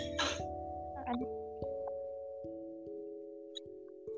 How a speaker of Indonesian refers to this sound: lagi mau makan bakso nih bunyi-bunyi piring.